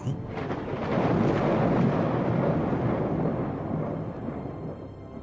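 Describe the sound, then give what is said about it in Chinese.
A deep, rolling rumble of thunder swells within the first second and holds heavy and broad, then slowly fades over several seconds, with no voices present. “这就是雷鸣。”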